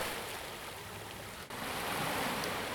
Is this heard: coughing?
no